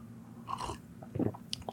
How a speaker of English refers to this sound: Oh, somebody complained they don't like to hear me sipping water, so I apologize.